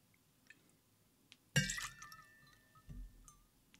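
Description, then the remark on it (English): A sharp glass clink rings out and lingers, followed by a short splash of one ounce of whiskey being poured for a cocktail and a soft knock of glass set down, with no voices. “Let's get some fruit fly juice in there.”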